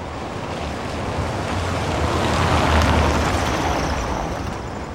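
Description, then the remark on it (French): Steady wind roars across a large open square paved with small cobblestones, with the metro beneath it, near Place Sainte-Catherine: a dense rushing hiss with a low rumble underneath that swells to its strongest midway and then eases slightly. No voices. “Il n'y a pas trop de maisons dans les alentours parce qu'il y a assez bien de vent.”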